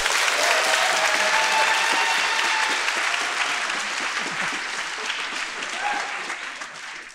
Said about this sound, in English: Thank you yeah, yeah. Thank you for the easy clap there.